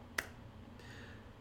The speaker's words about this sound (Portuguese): Esse é o som de duas mãos batendo.